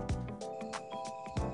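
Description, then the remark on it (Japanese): Bell crickets chirp steadily in the background at a mountain villa in Iizuna town, Nagano, Japan, during summer vacation, a continuous high ringing drone with no speech, broken now and then by short soft bursts of noise. “なんか突然だけど今日なんか後ろがすごいスズムシの声がするけどどどちらですかそちらは今は夏休みで長野の飯綱町というところにえ遊びに来ていて、山奥のヴィラに滞在してます”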